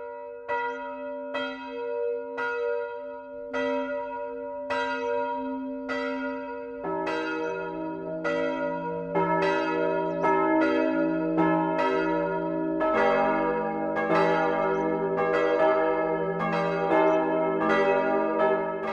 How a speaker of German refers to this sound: Das Mittagsläuten kommt heute aus Streitau im Landkreis Bayreuth. Anne-Rose Zuber hat die evangelische Kirche St. Georg besucht, deren drei Glocken heute zum Auftakt der 650-Jahrfeiern des Dorfes läuten.